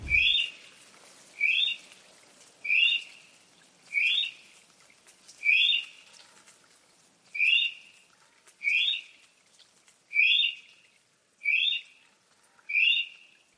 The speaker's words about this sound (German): Das war der braune Kiwi, der Nordinsel. Hört sich tatsächlich ein bisschen anders an, der Geselle, finde ich. Man hört einen Unterschied.